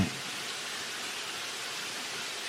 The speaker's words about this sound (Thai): วันนี้ฝนตกหนักตกแรงฝนตกแรง